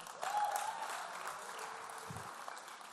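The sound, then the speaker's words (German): An audience claps steadily, a dense wash of many hands that holds at an even level for the whole stretch before easing slightly toward the end. “Hier ist dein Applaus.”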